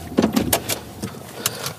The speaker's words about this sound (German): Und äh, ich äh, stelle mal das Auto hier hin, da laufen wir ein Stückchen.